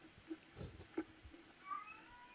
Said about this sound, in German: Katze. Katze möchte mitsprechen.